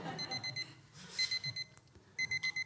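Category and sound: household object, alarm clock ringing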